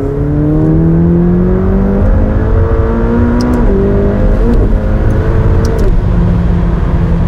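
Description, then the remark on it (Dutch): A sports car engine in track mode roars loud, its pitch climbing and dropping in several quick steps as the driver downshifts three times and then accelerates hard on a road in Germany, with no voices. “En dan schakel een keertje terug, nog een keertje terug, nog een keertje terug. En daar gaan we.”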